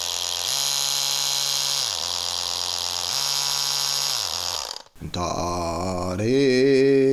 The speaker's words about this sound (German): Das erste ist der Mixer. Der hat drei Geschwindigkeitsstufen. Null hört sich so an. Ja, da hört man nämlich nichts. Da dreht sich der Motor nicht. Die erste Stufe ist ein F, ein tiefes F. Die zweite Stufe, einmal hören, welches Intervall das ist.